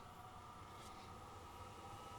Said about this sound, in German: Ja, aber ich wollte den Zug zeigen. Zug also, zeigen. also der, ich sehe den jetzt, ihr seht den nicht.